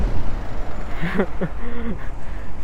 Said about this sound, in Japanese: 買い古されたおじさんみたいな音がしてるディーゼルエンジンガラガラガラすごいねなんか 追い抜いてったらね襲うと全然違う姿のバスだった思ったより可愛かった